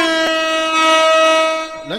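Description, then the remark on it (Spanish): A bugle sound effect: one bright, brassy note held steady for nearly two seconds, ending in a brief upward slide. No voices accompany it. “Déjale toco la corneta y el efecto de corneta.”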